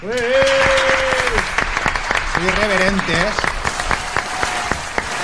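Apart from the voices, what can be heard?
applause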